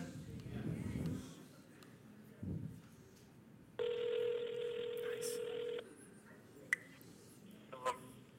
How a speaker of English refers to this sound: All right, hold on. Let me put this on speaker here. All right, let me see if this will work. Go, it's ringing. Can y'all hear that?